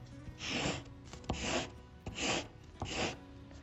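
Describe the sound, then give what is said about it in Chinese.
An HB pencil scratches out four straight lines on paper in a steady rhythm, each a short, dry, raspy scrape beginning with a faint tap of the tip on the paper. No one speaks. “如果我把它画一个直线呢？”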